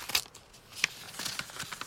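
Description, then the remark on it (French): A paper envelope, left out on a bed, is torn open in a quick series of dry, crackling rips and rustles, bright and papery, with short sharp bursts spread over a couple of seconds. No one speaks. “les yeux de Camille se posent sur une enveloppe laissée en évidence sur le lit.”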